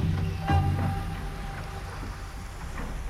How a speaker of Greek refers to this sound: Ο μόνος θόρυβος ήταν αυτός που έκανε το ξύλινο σκαρί σπάζοντας το κύμα. Μα αυτός δεν ήταν θόρυβος, ήταν ένα τραγούδι